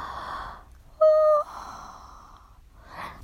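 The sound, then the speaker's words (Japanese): A drawn-out yawn: a breathy inhale swells into a short, loud voiced groan, then eases into a long airy exhale, followed by one more soft breath. “あくびが止まりません、えー、まだまだ寝れそうですけど”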